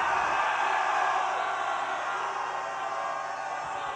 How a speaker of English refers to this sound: I hate to divide an audience between the genders, but I can only hear women screaming, please, boys, help us out and scream as if you're in hell.